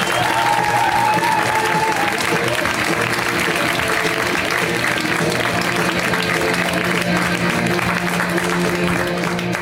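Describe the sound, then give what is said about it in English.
A comedy show audience applauds steadily as a comic is introduced to the stage, with loud, dense clapping and scattered cheers and whoops, holding an even intensity throughout with a faint high whistle-like tone early on. “Let's hear right now for Georgia Brooks, you guys. Get up for Georgia!”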